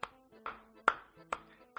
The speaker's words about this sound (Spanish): mire, voy a hacer un minuto y voy a aplaudir.